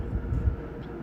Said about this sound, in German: Scheint ein langer Zug zu sein.